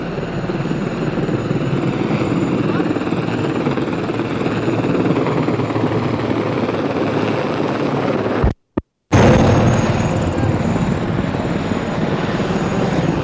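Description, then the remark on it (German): A helicopter roars overhead, dropping gas grenades again during a clash between demonstrators and police on Industriestraße. Its dense, steady rotor and engine noise fills the air, broken only by a brief moment of silence before the drone resumes. “Hubschrauber kommt wieder und schmeißt wieder Gasgranaten.”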